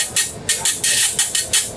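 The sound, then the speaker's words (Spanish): A merengue güiro scraped in a quick steady rhythm: about eight bright, hissy rasping strokes, some longer than others, played alone with no voices. “Bueno, pero sabes que lo más más bestias en esto, este es un wirro de, de merengue, en realidad.”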